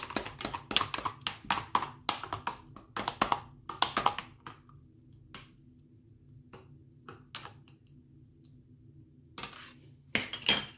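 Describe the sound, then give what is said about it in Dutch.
A spoon clinks rapidly against the inside of a jug as detox water with mint leaves, raspberries and lemon is stirred, a quick run of bright metallic taps that slows to a few scattered knocks, over a low steady hum. “Nog een klein beetje zeemas erbij en roeren.”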